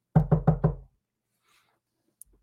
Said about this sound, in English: And I put my ear against a wall and it's like, oh. And you give them the friendly knock.